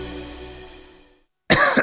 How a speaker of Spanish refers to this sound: ¿Cansado de toser?